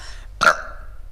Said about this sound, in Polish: Po spałaszowaniu frytek jednym haustem wypija szklankę piwa z lemoniadą. Trzy razy beka